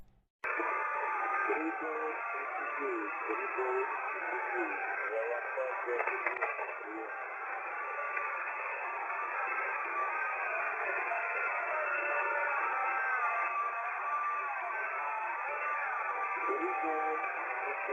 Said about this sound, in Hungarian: hogy feltörték a a rádiót, ami van az oroszoknak, azt a rádió csatornát, amin az oroszok kommunikálnak, és hát hallgassátok csak, igazából itt, itt is le van írva, hogy hát az ukrán himnusz megy.